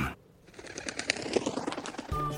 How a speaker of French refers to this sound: Un pigeon m'apporte du courrier.